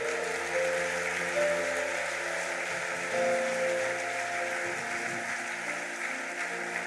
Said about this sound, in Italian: Facciamogli un applauso meraviglioso.